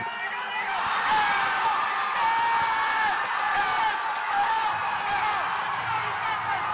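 A large baseball stadium crowd roars and cheers without pause after the crack of a bat, a dense, loud wall of voices that holds steady for several seconds, with no single speaker standing out.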